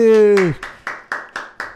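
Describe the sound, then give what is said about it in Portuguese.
A short vocal sound gives way to a steady run of about six sharp hand claps, evenly spaced and fairly loud, like brief rhythmic applause for a person being introduced. “Uma salva de palmas”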